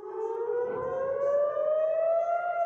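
air raid warning sirens

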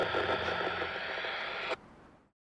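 radio static

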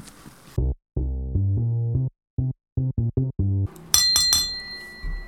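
glasses clinking together

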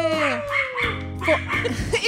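dog barking

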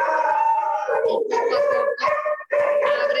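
dog howling and whimpering

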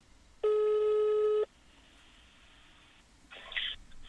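telephone ringing tone

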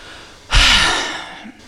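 yawn

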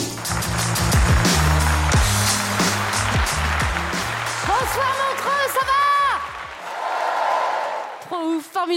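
audience applause and cheering

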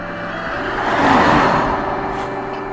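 car driving past outside

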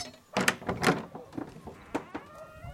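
door being pushed open

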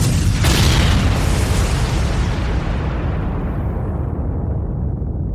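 explosion sound effects

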